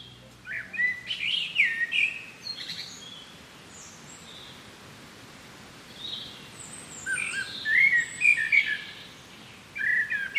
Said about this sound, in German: Ach, wie schön. Blick aus dem Fenster, Vogelgezwitscher und Sonnenstrahlen.